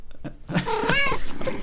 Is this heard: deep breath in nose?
no